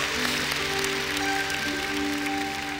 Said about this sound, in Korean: 이 시간 우리가 하나님께 영광의 박수를 드릴 텐데 축복의 통로를 내게 주신 그 하나님께 우리가 영광의 박수를 드리겠습니다.